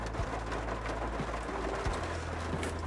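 Steady, dense hiss of heavy rain pouring down without a break, with scattered sharper patters and a faint low hum underneath; nobody speaks.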